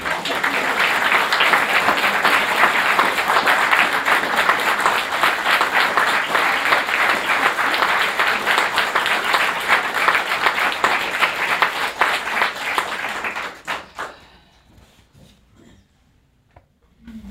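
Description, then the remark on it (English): An audience at a storytelling event applauds the storytellers steadily, a dense wash of many hands clapping at an even loudness for around thirteen seconds before it thins out into a few scattered claps and fades to near silence. “I want to clap.”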